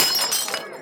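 A glass candy bowl shatters in one sharp, bright crash, with scattered pieces clinking and settling for a moment afterward, fairly loud with no voices.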